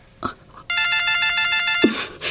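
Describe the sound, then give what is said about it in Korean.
A telephone rings with a bright, buzzing electronic trill, a steady burst lasting over a second, starting abruptly after a short quiet bump and cutting off cleanly. No one speaks. “엄마, 나 전화 좀 받을게.”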